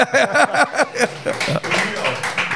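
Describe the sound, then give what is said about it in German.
Men clap their hands in a quick, steady run of sharp claps, with laughter and voices mixed in over the claps. “Wer uns nicht sehen kann, die Herren klatschen.”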